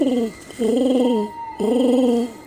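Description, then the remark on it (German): A person blows three low, hollow cooing hoots through hands cupped in front of the mouth, imitating a dove: a short first call, then two longer, steady ones with brief pauses between, fairly loud. “Ich legte meine Hände vor den Mund und ahmte dreimal den Ruf einer Taube nach, wie wir es als Kinder so gern getan hatten.”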